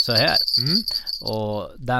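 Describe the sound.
A small, high-pitched bite alarm bell on a fishing rod, which rings when a fish bites during bottom fishing, tinkles steadily and thinly throughout while a person talks over it in short phrases.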